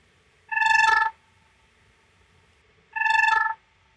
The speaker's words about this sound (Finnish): Saatko sä heinäsirkkaorkesterista tällaisen teaserin tähän väliin? pitääkö käynnistää Soundflower uudestaan? Kaiken teorian mukaan täältä pitäisi jotain ehkä, ehkä tuota tulla. Laitetaan sulle yhden heinäsirkan äh, pieni ujellus täältä.